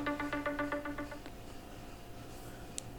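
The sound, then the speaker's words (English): A mobile phone ringtone plays a quick run of bright, repeated electronic tones for about a second, then cuts off, leaving a low steady hum. It sounds fairly quiet. “Sorry, I forgot to put my phone on silent.”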